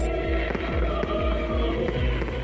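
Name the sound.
fireworks exploding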